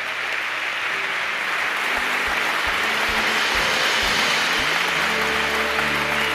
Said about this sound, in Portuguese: Você pode aplaudir bem forte.